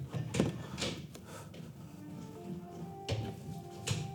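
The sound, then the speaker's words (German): A guest has trouble with a door while handling and opening it, with several sharp clunks and rattles spaced unevenly over a few seconds, over a low steady hum. “Gast hat Türprobleme.”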